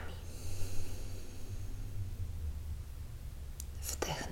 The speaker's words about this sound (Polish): Weź wdech przez nos i wyobraź sobie napełniający się w Twoim ciele balon. A teraz wypuść powietrze ustami. Wdech nosem. Wydech ustami.